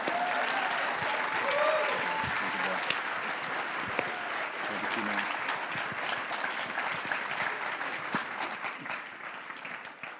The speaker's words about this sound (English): Come on, y'all. Come on, Clap you your hands in here.